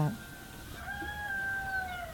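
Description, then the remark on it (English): A single long, drawn-out cat meow, played from a video, that holds a steady pitch and slowly sags at the end, fairly quiet and heard over a low background hum. “This is the most spoiled cat on Look the planet.”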